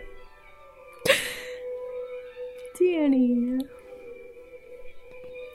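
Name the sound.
clock chiming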